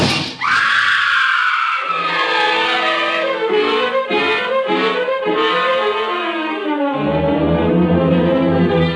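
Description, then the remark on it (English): A woman lets out a loud, high, rising scream as she loses her footing and tumbles backward through the glass of a large French window, with a crash of breaking glass, followed by several seconds of sustained, dense, dramatic sound with no talking. “As she tried to step backward out of my reach, she lost her footing and tumbled through the glass.”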